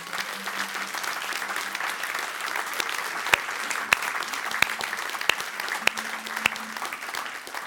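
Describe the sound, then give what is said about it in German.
A church audience applauds long-time members of the church with steady applause that fills the whole stretch, a dense wash of many hands clapping at even loudness, with a few sharper individual claps popping out near the end. “Wollen wir denen mal einen Applaus geben?”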